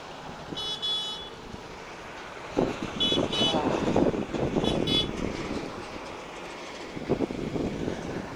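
Rumbling traffic noise with vehicles passing, building in bursts, while short high horn toots sound several times over the steady roar.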